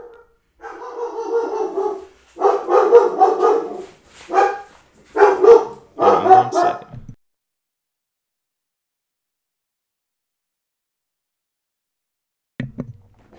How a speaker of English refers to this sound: Alright, that was my dog.